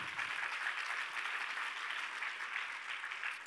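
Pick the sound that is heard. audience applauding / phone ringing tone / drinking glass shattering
audience applauding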